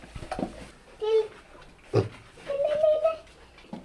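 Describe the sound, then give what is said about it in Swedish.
Several short grunts and snorty oinks from pigs, a very large sow and a small piglet, at an old farm museum on Bornholm, Denmark, arriving in bursts with a longer squealing grunt near the end, over a quiet background. “Vad är det för djur det Grisar.”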